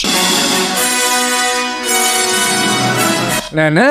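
Lush orchestral film music from the score of the 1942 film Abismo de Pasión plays loudly and steadily, with sustained, swelling strings and brass chords that shift midway and end in a brief rising flourish.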